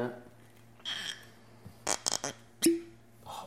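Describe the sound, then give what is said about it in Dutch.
A cork is worked loose from a wine bottle: a few short squeaky creaks, then one quick hollow pop, over a faint steady hum. “Ik vind dat een van de mooiste geluidjes dat er is. Dat is eh, ik ken er nog eens. Open, openen van, een fles.”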